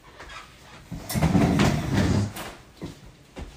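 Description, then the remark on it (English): A refrigerator door is pulled open with a sharp click to put something inside, followed by a second or so of rattling, rumbling movement, then shut again with a soft thud. No one speaks. “I'm gonna have to put this in the refrigerator.”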